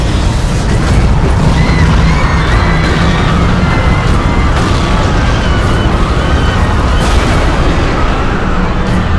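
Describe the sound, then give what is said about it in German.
A huge explosion as a steel tower launches into the sky from the middle of a city sounds as a continuous, loud roar with deep rumbling underneath and sharper crackling bursts flaring up at intervals, filling the whole stretch without letting up. “Im nächsten Moment erfüllten tausend Schreie die Luft, als der Turm in den Himmel hinaufschoss.”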